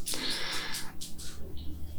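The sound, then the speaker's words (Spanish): The pet Pupi sneezes: a sharp, hissy burst followed by a couple of brief snuffling puffs, fairly loud against a quiet, low background hum. “Esa es la pupi que está estornudando.”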